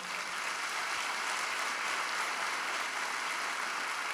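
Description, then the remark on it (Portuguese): A church audience applauding the Lord, a steady wash of many hands clapping at an even, sustained loudness for the full few seconds, with no voices heard over it. “Pode aplaudir o Senhor.”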